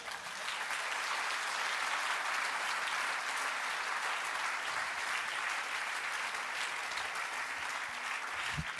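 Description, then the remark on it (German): Sustained audience applause for a professor's career record, a dense, steady wash of many hands clapping at an even loudness for several seconds, with no one speaking over it. “Der Applaus ist jetzt für Ihren Lebenslauf, Herr Professor.”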